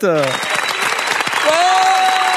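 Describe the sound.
An audience claps steadily and loudly throughout, a dense patter of many hands, with a brief voice at the start and a short tonal whoop or cheer rising near the end.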